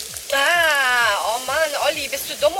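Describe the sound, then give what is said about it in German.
A steady hissing spray of water is squirted at a person through the whole moment, while a person talks over it in a raised, animated voice. “Was spritzt du mich denn nass?”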